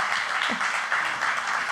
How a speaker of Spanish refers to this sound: por cierto, un aplauso al guitarrista que... Grande.